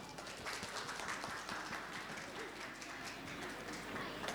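An audience applauds steadily, a dense wash of many hands clapping at a fairly constant loudness for the full four seconds, with no voices heard over it.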